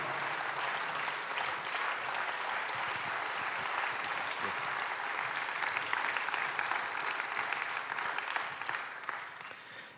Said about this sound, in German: Also Applaus für unsere lieben Freunde hier. Ihr habt das super gemacht. Danke vielmals.